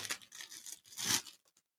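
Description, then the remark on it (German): A storage pouch is ripped open in a couple of quick, crackly tearing bursts, fairly loud, then it fades to quiet. “Das ist eine, das ist irgendein Beutel, ist ein Behältnis, ist ein Beutel, eine Tüte und das scheint wohl irgendeine Aufbewahrungstüte zu sein.”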